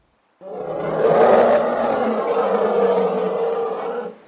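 A single loud elephant cry, a rough, roaring bellow that starts abruptly and holds steady for about four seconds before cutting off, with no voices.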